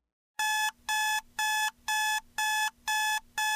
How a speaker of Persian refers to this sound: ساعت بالای سرش رأس چهار و چلو پنج دقیقه صبح جیغهای دلخراشش رو بلند کرد تا او رو برای یک روبه بعد که باید بیدار بشه آماده بکنه یک رو برای اون خیلی بود جیغها رو خفه کرد